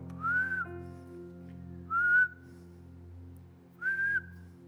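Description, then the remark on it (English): A person whistles three short, clear notes, each sliding slightly upward, spaced evenly about two seconds apart, over a steady low background hum. “That every time a difficult circumstances came around, every time there was a difficult moment, instead of saying, so what, they would just whistle.”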